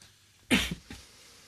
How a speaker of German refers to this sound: du hast Husten, du Ärmster. Ja, so ein bisschen.